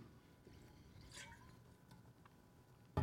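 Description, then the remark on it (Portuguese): A quiet sip of water, with a soft wet slurp and gulp, then a sudden bump at the very end against faint background noise. No one speaks. “Eu também estou com a boca seca, dá um golinho d'água aqui.”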